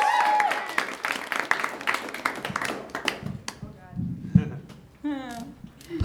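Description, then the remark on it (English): An audience claps in a dense, crackling burst of applause for a performer walking to the podium, thinning out after a few seconds as a voice starts talking over the last scattered claps. “Clap your hands all the way to the podium”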